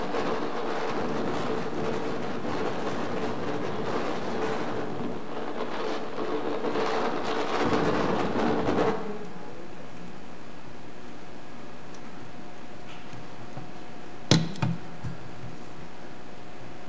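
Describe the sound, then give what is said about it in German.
A loud, roaring storm wind rushes steadily for about nine seconds, swelling briefly near the end before cutting off to a low hum, followed later by a single sharp knock. “Ja, bei so einem Sturm, da wird man schon munter und ich glaube, dass auch die, die Jünger, die damals an diesem Tag dieses Brausen, von dem wir gehört haben, erlebt haben, ähm, ja, sicher auch dann munter waren.”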